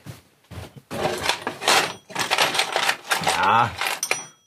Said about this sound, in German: Ich schlage jetzt einfach einen ganz großen Nagel in die Wand und probiere, ob der Kuckuck noch in Ordnung ist.